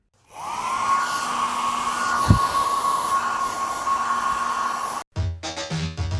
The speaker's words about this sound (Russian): Фен.